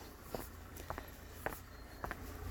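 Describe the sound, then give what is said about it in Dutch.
Footsteps crunch on a gravel path as someone walks toward the entrance of an old building on a sunny day, a steady series of gritty steps, with a soft outdoor background hum and no talking. “En ik loop over het grindpad richting de ingang.”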